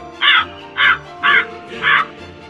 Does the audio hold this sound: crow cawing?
yes